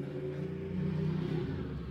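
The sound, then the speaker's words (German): A motorcycle engine revs outside, a loud, steady low growl with a rising pitch that fills the whole moment, droning on without a break and with no voices over it. “Danke an das Motorrad.”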